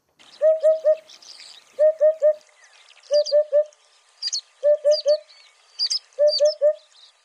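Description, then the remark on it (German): A Eurasian hoopoe, a brownish-yellow migratory bird that winters in Africa, repeats its soft, hollow three-note call, 'oop-oop-oop', five times in steady succession, with smaller birds chirping faintly in the background. “Das sind Geräusche von einem Wiedehopf.”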